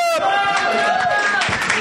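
An audience bursts into steady applause for the next storyteller, with dense overlapping claps and a few high, sustained whoops and cheers rising over the clapping, loud throughout the short burst.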